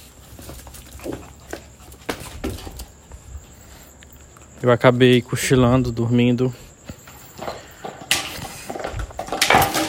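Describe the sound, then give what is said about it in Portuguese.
Dogs knock a plastic bottle around, making sharp scattered clacks and a louder crinkling rush near the end. A person briefly speaks in the middle, over a thin, steady high whine. “Ai meu Deus, meus cachorros brincando com litro. Isso não é hora de brincar com litro.”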